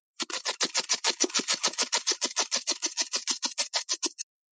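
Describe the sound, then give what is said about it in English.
A voice imitates a helicopter while playing an airlift helicopter card in a board game such as Pandemic or the Forbidden games, slowly moving a piece across the board: a fast, steady chopping rhythm of breathy pulses, about four seconds long, fairly loud, stopping abruptly. “I have a house rule that I always follow whenever playing the Forbidden games or also Pandemic, any of those games that has like an airlift helicopter card. Anytime I play one of those cards, I have to go,”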